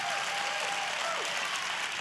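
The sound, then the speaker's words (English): An audience claps steadily in dense, sustained applause that fills the space, loud and continuous without breaks, with a faint voice briefly audible beneath the clapping. They applaud on a count of three to encourage those who need to take the next step. “I'm gonna count to three, I'll let you do it, but will you put your hands together and applaud to encourage all of those that need to take this next step?”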